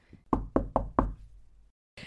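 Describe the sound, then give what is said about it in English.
Four firm knocks on a wooden door in quick, even succession, fairly loud, each with a short hollow ring before it falls quiet. “but then one day, there was a knock at his door, and everything changed.”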